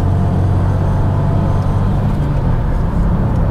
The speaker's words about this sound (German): Ich komme zu einer Mautstelle, da kann man danach dann gleich mal die Beschleunigung ein bisschen checken das anfühlt. Okay, jetzt hört man den Dreizylinder. Wenn man wirklich ausdreht.